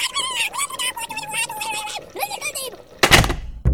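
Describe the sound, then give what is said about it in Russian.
A door creaks with a long, wavering squeak of its hinges as it swings, then shuts with a loud thud, followed by a second, smaller knock. “Вы закрыли дверь и понадеялись, что спор померещился.”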